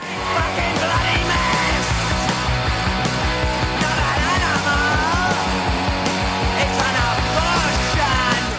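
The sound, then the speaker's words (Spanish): A loud punk rock song plays throughout, with driving drums, thick distorted guitars and raw shouted vocals, steady at full volume. “Y lo hacemos a pleno grito punk, con el … de los …, una legata rabioso.”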